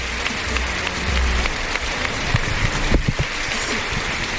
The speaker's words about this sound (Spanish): Sale con la montera en el antebrazo izquierdo. Y saluda fuerte casi a los medios. A recoger esa ovación de los tendidos.